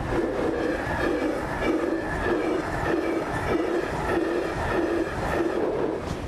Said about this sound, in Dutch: De treinen minderen geen vaart, ze razen langs, rakelings langs de kermis, de kerk, het café. In een rechte hoek op de dorpstraat, waar ze van tijd tot tijd de klokken overstemmen om dan weer naar elders te verdwijnen.